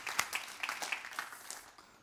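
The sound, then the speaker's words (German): A brief, fairly quiet round of applause given for Jesus: a few hands clapping in quick, uneven bursts that thin out and fade after about two seconds, with no talking over it. “Ich gut einfach Jesus Applaus geben.”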